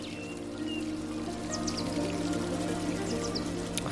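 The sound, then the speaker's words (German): Gently flowing water of a small river murmurs steadily, with small trickles and drips popping up over a soft, sustained background hum. It sounds calm, and nobody speaks. “Folge einfach ein bisschen diesem Flusslauf und beobachte, wie sich dein innerer Garten auch ein bisschen verändert”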